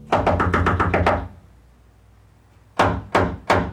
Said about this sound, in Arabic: لما وصلت الشرطة البيت طقوا عناصر الشرطة الباب لأنهم على وشك القبض على السفاح يطاردونه من سنة كاملة